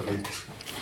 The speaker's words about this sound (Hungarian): Szuper lesz ez a, ez a szék, hogy így, így recseg ja, alattunk. az a tiéd? De ez az enyém is, eh, enyém is recseg.